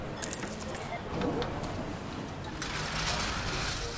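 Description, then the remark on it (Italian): A single coin, handed over as change, drops with a bright, ringing metallic clink near the start, then fades into a steady background hum with soft shuffling. “Ecco il suo resto.”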